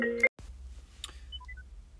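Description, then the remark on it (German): A short burst of an electronic phone ringtone from an incoming call cuts off abruptly, followed by a click and a few soft, brief beeps at different pitches against a quiet background. “jetzt habe ich einen Anruf.”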